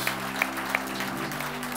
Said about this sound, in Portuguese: Dê uma forte salva de palmas para o Senhor mais uma vez.